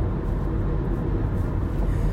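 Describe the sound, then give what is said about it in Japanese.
A steady, low rumble of road and engine noise fills the inside of a moving car, constant and fairly loud throughout with no voices. “なのでちょっとこうやって運転して移動してる間に言いたいことが言えたらいいなって思ってちょっと撮ってみてます”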